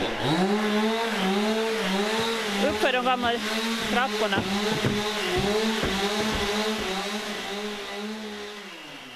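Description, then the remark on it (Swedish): A chainsaw whines steadily, its engine pitch rising and dipping as it cuts through new and old wooden logs, while a person speaks briefly over the loud, continuous drone. “De håller på och sågar där för fullt. vad är det som motorsågen äter sig igenom där just nu?”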